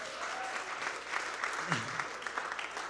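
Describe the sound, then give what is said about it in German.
An audience clapping steadily for two participants, a dense crackle of many hands at moderate volume, continuing throughout with a brief voice murmuring underneath. “Okay, ein Applaus für die beiden.”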